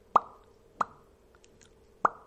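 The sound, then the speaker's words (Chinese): A voice imitates the pea-shooting peapod from the game Plants vs. Zombies with three sharp, hollow mouth pops, the first two close together and the third after a longer pause, with no talking in between. “这是一种能力，发出这个声音的那个豌豆荚。”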